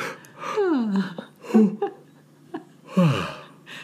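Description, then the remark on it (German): A person yawns, a breathy inhale sliding into a long, falling, voiced moan, followed by a few soft breaths and a second, shorter yawning sigh near the end. “Ja, mein Trainer hat immer Gähnanker installiert.”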